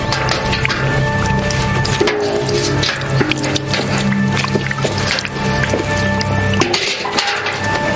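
Water sloshes and splashes in a basin filled from a fountain and carried behind an orphanage, with a steady, loud, churning wash of liquid, punctuated by wet squishy slaps, while faint sustained tones hum underneath.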